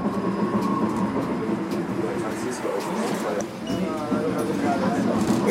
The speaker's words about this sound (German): Zwischen den Sehenswürdigkeiten von Samarkand fährt eine Straßenbahn. Sie war 2017 in Taschkent eingestellt worden und flugs hatte man Gleise und Triebwagen nach Samarkand gebracht und dort einen neuen Straßenbahnbetrieb eröffnet.